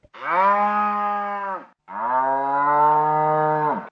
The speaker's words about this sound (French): Le son numéro 4, c'était le son d'une vache qui meugle.